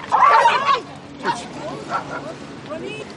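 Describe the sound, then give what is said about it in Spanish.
A dog on Isla Damas, near Punta de Choros, barks: one longer, louder burst, then a few shorter, softer yips spaced out, over a background of murmuring voices. “Mira, este es un perrito de la isla Damas.”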